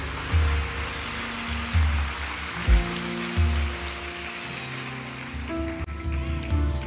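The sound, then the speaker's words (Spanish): A crowd breaks into sustained applause, a dense, steady wash of clapping lasting several seconds, with a few low thumps underneath and no voices on top. “Vamos, dale un fuerte aplauso.”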